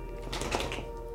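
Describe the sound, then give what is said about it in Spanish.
A dog shakes itself off, its collar tags rattling in a quick burst of light metallic jingling that peaks mid-clip and fades, heard fairly softly. “Ese fue mi perro sacudiendo.”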